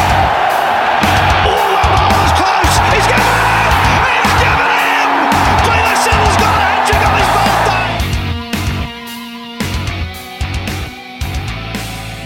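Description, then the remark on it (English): A big stadium crowd roars and cheers loudly for several seconds over a steady thumping beat, then the noise drops away as music takes over. “Crowd cheers.”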